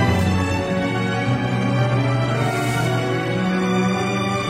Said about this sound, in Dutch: Dan kan je dus verknut worden met op de achtergrond eh, de tweede symfonie van Charles Ives.